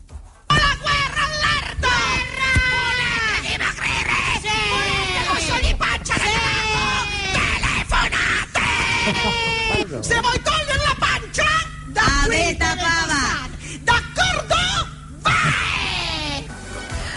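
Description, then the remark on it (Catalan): A crowd of voices shouting and yelling loudly and almost without pause in a television advert for cosmetic products, overlapping cries rising and falling over a faint steady hum, energetic throughout. “Però què són aquests crits?”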